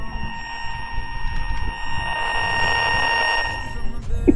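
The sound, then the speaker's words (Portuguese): A Chernobyl alarm sound effect: a steady, droning alarm tone with bright layered harmonics holds for several seconds over a rumbling low background, then fades out near the end. “Só toca o som do, do Chernobyl, galera, entendeu?”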